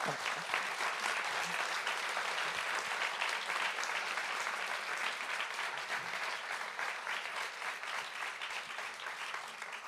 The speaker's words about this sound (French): Merci beaucoup à tous les deux. Merci. Merci. J'espère. je laisse le public vous applaudir d'abord.